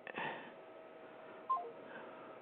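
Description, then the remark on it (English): A short electronic keypad beep sounds once midway through as a Connecticut phone number is dialed, over a quiet, hissy phone-line background with no talking. “He lives in Connecticut. I'll try him online. 860.”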